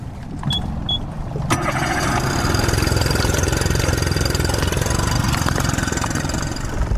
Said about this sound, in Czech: nasedáme do motorového člunu.